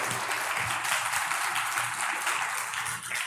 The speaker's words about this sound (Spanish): la semana pasada tuvimos unos predicadores invitados. Este, le damos un aplauso a Dios a la vida, por la vida de ellos. Un aplauso a Dios por la vida de ellos.